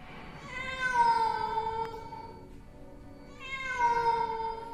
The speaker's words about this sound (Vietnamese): bỗng nhiên một tiếng mèo kêu não nùng vang lên trong đêm vắng